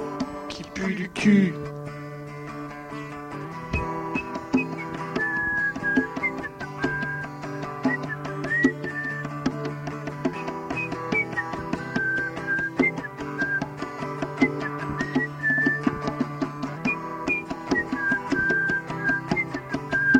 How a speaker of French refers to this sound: bien le petit sifflet à la fin. C'est toujours bien.